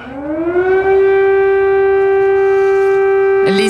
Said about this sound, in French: Sirène d'alarme hurlant dans le ciel de Kiev, c'était le 24 février 2022 au petit matin.